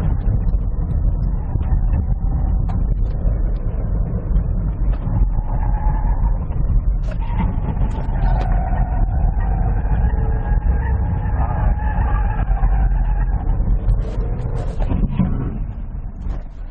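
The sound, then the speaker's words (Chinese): A Sunny (阳光) car with a CVT gearbox driving fast on a small race track, its loud, steady engine roar carrying a mid-pitched whine that rises and shifts in pitch, with a few brief sharp bursts. No one speaks. “好，刚才我已经开着阳光跑了我们这条小赛道，呃，有一点点出乎我意料，这台车在这个赛道上表现很不错。”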